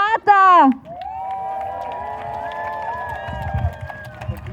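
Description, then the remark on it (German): A crowd cheers as a woman on hunger strike against ecocide is introduced and handed the microphone, opening with a loud rising whoop, then sustained shouting voices over a steady bed of clapping and murmur that continues throughout. “Großen Applaus bitte für die”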